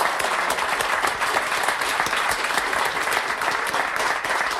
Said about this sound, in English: thank you, guys. Give these guys a massive round of applause.